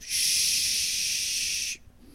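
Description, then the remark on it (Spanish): A voice imitates an aerosol mosquito spray being sprayed in a bathroom with one steady, loud hiss lasting about a second and a half, then cutting off abruptly into quiet. “Like, antes de yo este, llegar al baño, yo fui a la farmacia y yo compré spray para mosquitos. porque en el baño hay muchos mosquitos. Entonces yo llegué y tiré spray.”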